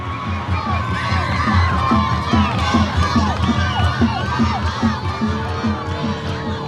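A lively crowd of island villagers and many children shouting and cheering in welcome as a boat lands, many overlapping excited voices with high-pitched calls and whoops, loud and continuous throughout.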